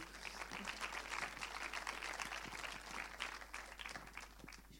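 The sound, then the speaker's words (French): Steady applause from a crowd at a film screening and debate, clapping for the organiser and for Les 400 Coups: a dense crackle of many hands clapping at an even level throughout, with no voices on top. “Et aux 400 coups aussi d'ailleurs, hein, on peut applaudir aussi,”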